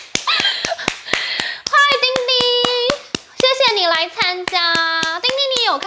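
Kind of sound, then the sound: human body sound, hand clapping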